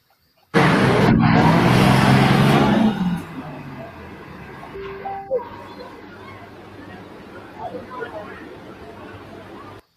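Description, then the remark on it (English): A loud, roaring pulling-tractor engine at a tractor pull in Shipshawana blasts for a few seconds, then fades into the background murmur of a chattering crowd with a few scattered shouts. “Here's the green blood at Shipshawana.”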